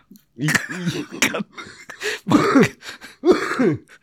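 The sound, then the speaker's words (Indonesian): A person coughs repeatedly, a series of rough, throaty hacks with voiced, groaning tails, coming in uneven bursts with short pauses between them. “Sambil terbatuk-batuk”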